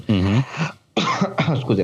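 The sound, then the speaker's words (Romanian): A short cough from a man choking on juice bursts out between brief spoken words, with his voice murmuring just before it and apologizing right after. “M-am mânecat, nu vă gândiți că am altceva, m-am mânecat pur și simplu cu suc.”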